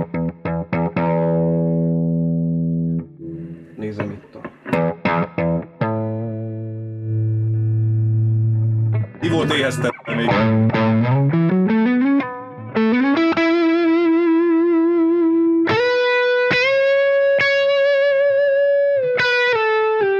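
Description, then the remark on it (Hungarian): Electric guitar through an amp's overdrive channel set to low gain, a thin, low-gain crunch. Single notes and held chords ring out with sharp pick attacks, building toward higher sustained notes near the end. No voices. “ez egy ilyen kicsit ilyen vérszegény tiszta, amit az Overdrive csak lehet, mert ez egy halára génezett.”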